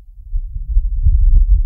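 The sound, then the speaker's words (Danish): A recorded breeze on Mars: a low, muffled rumble of wind that swells steadily, with a couple of brief faint gusts flicking through, hollow, with no voices. “Det er lyden af en brise fra Mars.”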